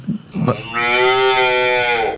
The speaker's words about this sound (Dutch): Ja, Met deze koe, dat horen wij als eh, andere burgers dan boeren eigenlijk nooit. Eh, omdat dit het, de roep is van het kalfje dat onmiddellijk gescheiden wordt van de moeder.